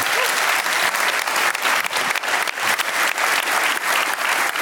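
Sustained audience applause, a dense, steady wash of many hands clapping at a constant loudness for several seconds, with no voices standing out above it.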